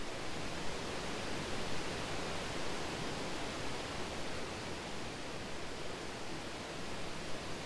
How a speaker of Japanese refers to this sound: この音何か分かりますかね、え壮大な滝の前に今皆さんをお連れしておりまして、えー、これホワイトノイズと、え思われて切られてる方もいるかもしれませんが、えー、ナイアガラの滝をイメージした音を聞いております